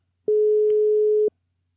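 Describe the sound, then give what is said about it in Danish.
A single steady electronic ringback tone from an unanswered phone call sounds for about a second, then stops, clear and fairly loud with no voices. “Tror du, hun tager den, altså? Jeg ved det ikke. Tre gange, det er ikke så godt.”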